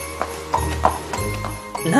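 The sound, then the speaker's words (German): A horse's hooves clop at a steady, even pace, about six hollow knocks, with a voice briefly coming in near the end. “Ihr Pferd hat dreckige Hufe.”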